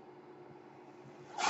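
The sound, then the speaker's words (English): A medical ventilator cycles: a low, steady mechanical hum gives way to a sudden, airy whoosh of pushed air at the very end. No voices. “That noise you hear is my ventilator.”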